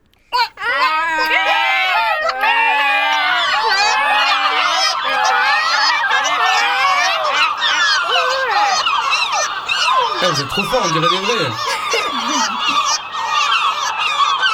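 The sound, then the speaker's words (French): A group of children's voices imitate seagull cries together, a dense chorus of shrill, wavering calls that overlap continuously, with an adult voice briefly speaking among them. “Alors euh, c'est le apparemment c'est le Rissa tridactyla le vrai nom le vrai nom de la mouette.”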